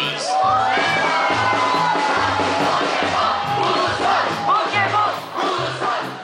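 A loud crowd of students chants and cheers in unison at a pause in a student's reading of a mock decree, voices rising in rhythmic shouts over a steady, pounding drumbeat, filling the space with continuous, energetic noise.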